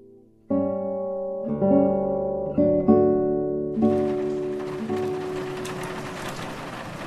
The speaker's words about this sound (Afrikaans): Ah, oh, donderstorm en reën op 'n sintdak sonder elektrisiteit.